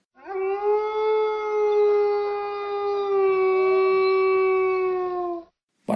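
A wolf lets out one long, sustained howl, rising briefly at the start and then holding a steady, clear pitch for about five seconds, loud, with no talking.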